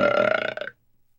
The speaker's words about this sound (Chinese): 不远处的森林边上，一只饥饿的黄鼠狼正两眼紧紧的盯着鸡舍，它舔舔嘴唇。想象着所有鸡蛋都被它吞入肚中的情景，心满意足的打了个嗝儿。